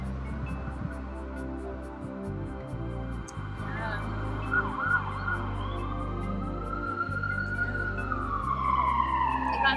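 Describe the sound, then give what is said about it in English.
An ambulance siren wails outside, its pitch sweeping up and down as it grows louder over a steady low rumble of traffic, with faint voices in the background. “Leave sirens, like whoa.”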